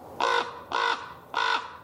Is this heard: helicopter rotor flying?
no